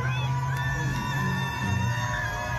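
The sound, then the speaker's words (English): A large outdoor crowd of Fulton County residents outside the courthouse cheers loudly for Donald Trump as he rolls through, shouting "free Trump", with overlapping whoops and raised voices blending into a loud, sustained roar. “Here's a clip of Donald Trump rolling through Fulton County outside of the courthouse as the residents, Fani Willis's residents, cheer loudly for him.”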